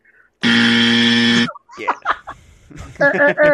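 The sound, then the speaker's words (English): A single loud, harsh buzzer sounds for about a second, steady and flat in pitch, then cuts off abruptly as a person starts talking. “uh, buzz them out.”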